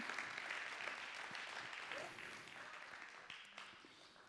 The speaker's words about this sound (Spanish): Dale un aplauso a Cristo Jesús.